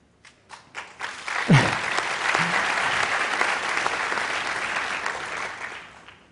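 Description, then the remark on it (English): A few scattered claps quickly swell into sustained, dense applause from a crowd, applauding President Paul Kagame and the Rwandan Ministry of Health, holding steady and loud for several seconds before tapering slightly at the end. “yeah, they deserve the applause.”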